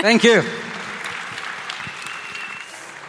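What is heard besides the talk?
audience applause and cheering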